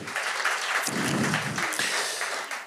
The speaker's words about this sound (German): Komm, gebt den Jungs auch mal einen Applaus. Applaus.